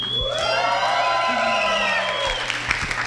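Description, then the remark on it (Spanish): A large live audience at a cinema cheers and shouts continuously, with high whoops and yells rising over a steady roar of many voices and scattered clapping, loud throughout. “ya están escuchando los gritos de toda la gente que nos vino a visitar al Cinema IFAL”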